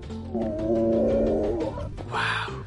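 One of two male lions in a habitat of several hectares growls in a long, deep, rumbling moan that lasts a couple of seconds, followed by a shorter, raspier snarl at the end.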